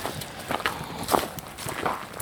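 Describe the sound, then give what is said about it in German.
Horse hooves clip-clop in a steady, unhurried rhythm, the hollow knocks moderately loud, with no voices over them. “der ja, ja, Pferdehüppel. An den Anfang der eigentlichen Folge.”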